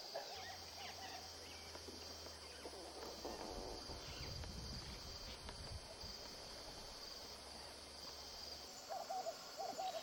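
Night bird calls, owl-like hoots, ring out repeatedly over a steady chorus of crickets and insects at night at a camp in a riverside clearing, with a low hum running underneath.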